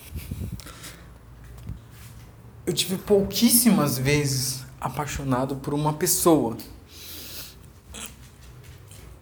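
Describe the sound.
A female dog snorts and sniffs in a few short, breathy bursts, mostly before a man starts talking, then faintly beneath his speech.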